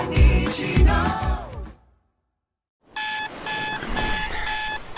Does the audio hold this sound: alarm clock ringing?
yes